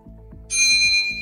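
A quiz answer buzzer sounds as contestants press to answer a question: a bright, sustained electronic ring starts abruptly midway and holds to the end, loud, over a soft, low, pulsing beat in the background.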